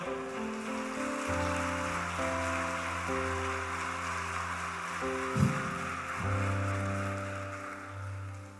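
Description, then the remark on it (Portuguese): A crowd claps steadily for several seconds, a dense, even wash of applause given for the Lord, while sustained organ-like keyboard chords play over it and shift a few times. “Posso ouvir amém? Um aplauso ao Senhor.”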